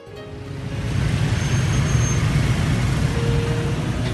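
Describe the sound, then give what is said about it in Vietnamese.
Dense street traffic roars past in a steady, continuous wash of engine rumble and tyre noise, with cars, buses and trucks blending together and no voices. “Nhìn dòng xe tấp nập lao nhanh trên phố”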